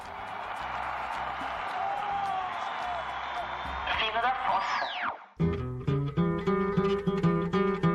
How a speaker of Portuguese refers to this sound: Palmas.